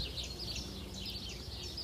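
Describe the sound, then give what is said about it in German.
Faint birdsong chirps and twitters continuously in the background over a low outdoor ambience on a sunny day at Pentecost, with no voices present. “Ihr hört wahrscheinlich Vögel im Hintergrund und vielleicht sogar das Surren der Hummeln, die hier neben mir in die Akeleiblüten hineinfliegen.”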